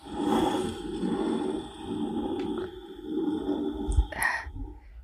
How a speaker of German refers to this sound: Ich reibe jetzt mal meine Dose über den Schreibtisch.